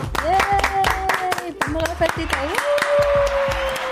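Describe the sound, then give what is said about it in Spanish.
Steady rhythmic hand clapping, several sharp claps in quick even succession, with voices sounding sustained tones over the beat throughout. “Que ya no tenemos que aplaudir.”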